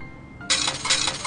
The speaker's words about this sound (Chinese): 投了两个硬币。